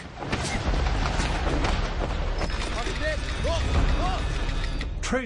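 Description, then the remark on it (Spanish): Anti-aircraft flak fire heard as parachutes open: repeated sharp bursts and cracks over a constant loud roar and rumble, with muffled voices or cries rising briefly partway through. “Cuando se abría el paracaídas, oías el flak.”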